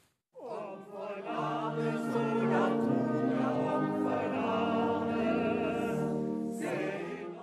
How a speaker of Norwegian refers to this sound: Dette er lyden av musikkvideoen som ikke hører hjemme i et demokratisk samfunn, ifølge Olav Thon. Det er en uh, liten gruppe uh, som uh, sendte en pakke. I denne pakken lå musikkvideoen som er laget av aksjonsgruppen La brygga leve.